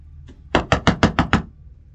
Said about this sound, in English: ill fitting hat knocks hesitantly on the rustic home the stone door somehow being covered in dust.